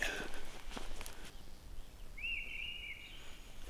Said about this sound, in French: la grive draine qu'on entend sur la gauche. Sacré coup de sifflet, hein